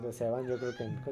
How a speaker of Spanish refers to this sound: ¿Qué pasó? Ese es el gato. Eso, que escuchan es el gato.